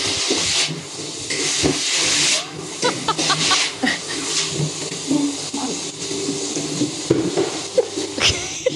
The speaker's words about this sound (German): Das aber. ist ein Staubsauger, das ist ein Staubsauger, der ist ganz leise. Ja, ja, das, das ist, ist, eh ein, schon das leise Silent. Modell, gell?